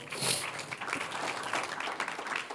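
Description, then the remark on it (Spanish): An audience at a church service applauds the Lord together, a steady, dense wash of many hands clapping that holds at an even level for a couple of seconds with no voices over it. “Un aplauso al Señor.”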